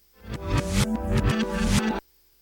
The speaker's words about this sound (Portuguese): Qual é a música que está hoje virada ao contrário?